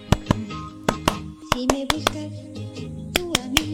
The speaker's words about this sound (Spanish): Palmas.